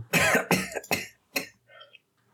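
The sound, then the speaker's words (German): A quick series of four harsh coughs, a lingering cough after Corona, in about a second and a half, followed by a faint raspy throat sound as it settles. No talking. “Ich habe immer noch Husten von Corona, obwohl ich kein Corona mehr habe.”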